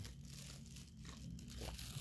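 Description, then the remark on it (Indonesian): Continuous crinkling and crunching from someone drinking an iced drink out of a plastic cup, with a low steady hum underneath and no one talking. “gue minum dari es es plastik ya”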